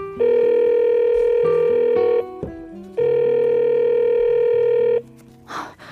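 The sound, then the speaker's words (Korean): A phone ringback tone sounds twice as a man calls his girlfriend around 10 p.m., each steady electronic buzz lasting about two seconds with a short pause between, loud, followed by a faint rustle at the end. “밤 10시쯤 됐는데 연락이 없어서 제가 전화를 했죠.”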